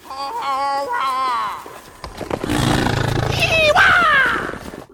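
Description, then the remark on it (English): A cartoonish voice hoots and hollers loudly, first with wavering, yodel-like cries, then a rough, roaring yell that swoops sharply upward in pitch. “He's just like hooting and hollering.”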